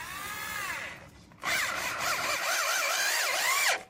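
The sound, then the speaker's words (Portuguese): A neighbor's power drill, used to install something, whines in two bursts, a shorter softer one and then a longer, louder run, its motor pitch rising and dipping as the trigger is worked. No voices. “Mas aí tem barulho de cachorro latindo, zelador passando coisa para cortar a grama, vizinho usando furadeira para instalar não sei o que.”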